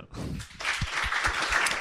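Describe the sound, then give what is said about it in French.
An audience breaks into applause for Daz after a brief murmur, the clapping quickly swelling into a dense, steady patter that continues with scattered low thumps underneath. “On peut applaudir Daz.”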